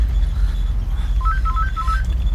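A mobile phone rings with a short, bright melodic ringtone, a quick run of electronic notes rising and falling, heard at moderate volume over a steady low background rumble.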